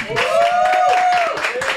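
An audience applauds with dense, steady clapping for about two seconds, while a sustained high tone, like a whistle or a drawn-out cheer, rises and holds over the clapping.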